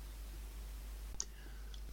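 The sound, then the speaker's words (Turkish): Two soft, quiet taps on a phone touchscreen, a double-tap to open the typing area of a Braille keyboard, each paired with a brief high electronic blip, over a steady low hum with no talking. “Şimdi yazma alanını açıyorum. Çift tıklıyorum buraya.”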